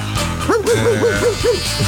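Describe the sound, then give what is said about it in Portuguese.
A dog barks in a room in a quick, even series of about six short, high-pitched yaps, loud, over a low steady background hum. “Cala a boca aí”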